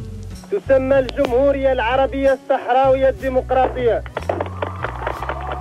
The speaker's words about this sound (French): Voilà, on a dit bienvenue à cette république arabe sahraoui démocratique et immédiatement, vous l'avez sans doute entendu, les applaudissements et les youyou des femmes. C'était la nuit dernière à Pir Lahlou